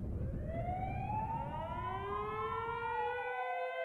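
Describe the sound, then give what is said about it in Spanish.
Ambulance and police sirens wail together, their overlapping tones slowly rising and falling over a low rumble of traffic, loud throughout with no voices. “Marina, al escuchar las sirenas de las ambulancias y la policía, llorando se puso de rodillas ante la Virgen de Guadalupe.”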